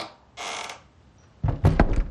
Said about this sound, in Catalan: Poc després, la senyora Dolors va entrar al menjador i va tancar la porta.